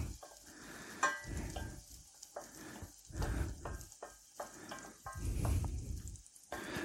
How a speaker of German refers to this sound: Ich werde jetzt hier einfach mal nur die Zwiebel in Sonnenblumenöl ein bisschen anschwitzen. Auch vielleicht so ein bisschen anbräunen.